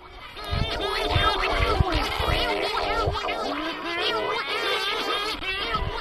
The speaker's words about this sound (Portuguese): É um som inconfundível nos Açores, nas escarpas, nas fajãs, as colónias de cagarros fazem a banda sonora natural das ilhas. No Corvo, mais ainda, a ilha tem o maior número de cagarros por área.